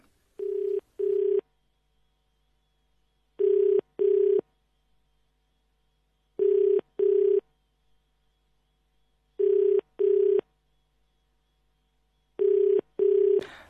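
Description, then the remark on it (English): A telephone ringback tone sounds five times in evenly spaced double bursts, each pair of steady electronic tones followed by silence, as an outgoing call rings on with no answer and no voicemail; it is the second try at reaching the person that day. “not picking up the phone and no voicemail uh, set up there.”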